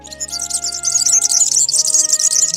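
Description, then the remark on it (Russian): A European serin sings a rapid, high-pitched jingling song that runs almost nonstop, bright, over a faint steady background hum. “Но канаричный вот этот вьюрок — это такая маленькая смесь канарейки желтенькой и воробья.”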